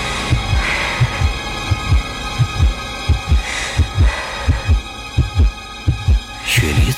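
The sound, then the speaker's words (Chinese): A loud, steady heartbeat thumps in paired low beats, lub-dub, repeating at a regular pace over a faint background hum, with no voices present. “他的心脏砰砰地跳着，心跳声已经大到了可以压制住呼噜的声音。”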